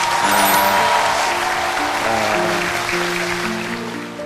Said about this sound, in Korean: 여러분 박수 한번 보내주시기 바랍니다